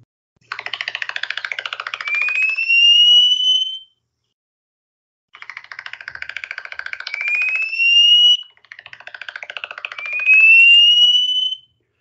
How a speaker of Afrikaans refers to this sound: Daar's die Hoëveld klappertjie en ook die eh, die Kaapse klappertjie.